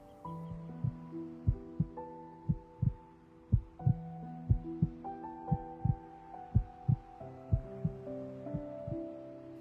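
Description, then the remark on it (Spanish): A steady, muffled heartbeat thumps in paired lub-dub beats about once a second, set against a soft, sustained droning musical pad. No one speaks. “Conéctate con el latido de tu corazón.”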